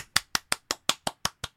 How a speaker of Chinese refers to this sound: 一个人拍手超 lonely 的